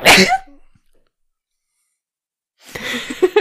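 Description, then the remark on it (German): A single sharp sneeze bursts out at the start, followed by near silence, then a voice begins talking toward the end. “Andere Menschen würden Gesundheit sagen.”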